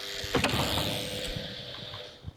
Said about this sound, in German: So, klick, klack, Licht an.